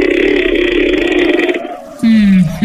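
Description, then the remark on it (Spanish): A voice imitates a creaking wooden door: a long, strained groan held for over a second, a brief pause, then a shorter, louder creak that bends downward. “Abrió una puerta de madera que hasta hizo un pequeño sonido como...”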